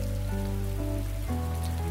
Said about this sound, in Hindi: उसने आसमान को देखते हुए अपने हाथ फैलाए और बारिश का स्वागत किया